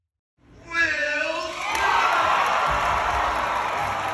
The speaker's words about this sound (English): Wild cheering.